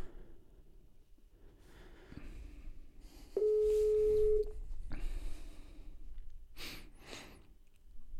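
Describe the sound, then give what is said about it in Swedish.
A loud, steady ringing tone from an outgoing phone call sounds once for about a second, prominent, amid quiet breathing and faint background rustling. “Vi ringer.”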